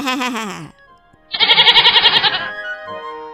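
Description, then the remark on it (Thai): A voice imitates a goat's bleat: a loud, quavering, wavering cry lasting about a second, after a short falling vocal sound. The bleat is prominent. “แล้วเขาก็ถามเจ้าแพะว่า เป็นไงบ้างเจ้าแพะ เจ้าอิ่มหรือยังข้าอิ่มนักหนาจนไม่อาจจะแทะหญ้าได้อีกแบรแบร”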